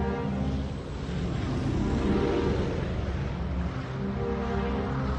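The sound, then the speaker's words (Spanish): Warplanes flying overhead: a loud, steady engine roar with a low, droning hum and a broad rushing wash of noise that holds for about five seconds, with no voices. “Aviones de guerra volando.”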